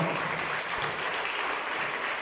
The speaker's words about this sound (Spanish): Déselo al Señor ese aplauso si se lo va a dar.